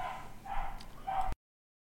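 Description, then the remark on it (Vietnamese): A household dog barks twice in quick succession, short yapping bursts that are not very loud, with no voices around them. “À, xin lỗi chị em con chó nhà tôi nó cứ sủa hoài”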